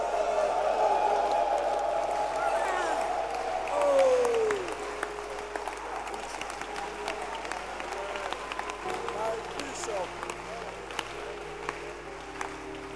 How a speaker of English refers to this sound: Stand to your feet and clap your hands.